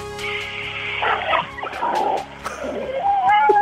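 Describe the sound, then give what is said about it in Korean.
A person vocally imitates a supermarket's underground parking garage: squealing, whining tones that slide up and down in pitch, punctuated by several sharp clicks, fairly loud and continuous throughout. “대형마트 지하주차장 소리.”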